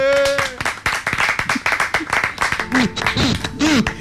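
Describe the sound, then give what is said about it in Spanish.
An audience breaks into steady applause, dense overlapping clapping that stays loud for about four seconds, with a few whooping voices rising and falling near the end. “Un aplauso del público, por favor.”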